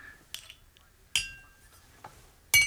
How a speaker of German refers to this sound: Ich gieße mir jetzt ein Glas Cognac ein.